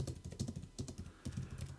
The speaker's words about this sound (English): And I, I, I hear you're typing furiously. No, that's just how I regularly type. I am trying to type subtly.